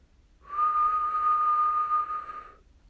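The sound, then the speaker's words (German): A single steady whistled note held for about two seconds, clear, whistled by a person sitting or standing upright as a voice warm-up exercise, with no talking around it. “Sitz oder steh aufrecht und jetzt pfeif mal.”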